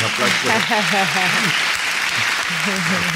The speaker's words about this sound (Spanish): Qué bonito esto, ¿eh? Qué bonitos son los aplausos. Qué bonitos son los aplausos. Para mí es el mejor instrumento.